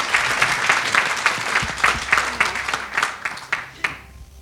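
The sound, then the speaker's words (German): A crowd applauds to welcome the Macher, a men's small group, many hands clapping in a dense, bright patter that holds for several seconds before thinning out near the end. “Applaus für die Macher.”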